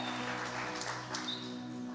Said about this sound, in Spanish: Denle un fuerte aplauso y tome su asiento.